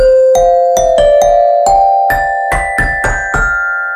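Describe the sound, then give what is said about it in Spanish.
A sequence of about ten notes played on a sampler keyboard one after another at a steady, unhurried pace, each with a sharp onset and sustained tone, loud with no voices. “Teclado y toquemos.”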